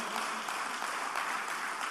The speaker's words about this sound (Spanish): Dele ese aplauso al Señor si se lo va a dar, por favor.